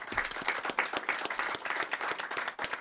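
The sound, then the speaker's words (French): A crowd claps steadily for a few seconds for Malik Bentala, a dense, even wash of many hands with no voices standing out. “On applaudit Malik Batala s'il vous plaît.”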